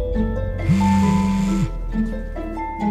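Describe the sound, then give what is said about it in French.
A telephone rings once in the trailer for Albert Dupontel's film Second tour: a steady, low electronic tone holding for about a second, over a busy background of music-like tones and noise, with no voices. “Le téléphone va sonner.”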